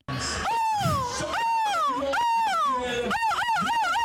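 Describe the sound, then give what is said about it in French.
A person imitates a large gull's (goéland's) cry at the yearly gull-cry world championship held at the Dunkirk carnival in France, with a loud series of high, wailing calls whose pitch swoops up and down, repeating without pause for about four seconds. “Eh bien non, parce que ce n'est pas une mouette, c'est le cri d'un goéland, ça.”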